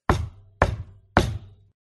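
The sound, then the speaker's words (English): Three loud, heavy knocks on an office door, evenly spaced about half a second apart, each hit sharp with a short ringing decay. No voices. “I'm going to walk up to the office door and just very loudly just”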